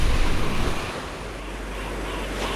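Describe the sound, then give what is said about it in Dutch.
Sea waves roar and crash in the distance in a steady, broad wash of noise, surging louder at first and then settling into a continuous rumble, with a windy hiss over it and no voices. “Spoedig horen wij in de verte haar razen en bulderen.”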